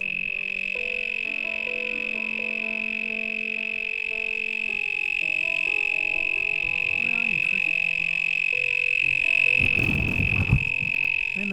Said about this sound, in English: if you can hear that little guy. But um, that's a very loud cricket.